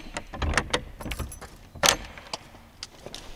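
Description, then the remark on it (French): An old Sarthe door at the entrance to an exhibition in a former paper mill is unlocked and opened: keys jangle and metal latches click and clunk, then a louder scraping thud midway, followed by a few quieter knocks. “C'est une vieille porte sartoise.”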